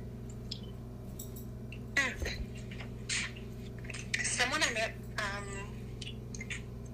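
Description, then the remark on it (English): Sips and swallows of water from a glass, a few wet gulps and faint clinks over a low background hum, no talking. “I'm just gonna take a drink of water.”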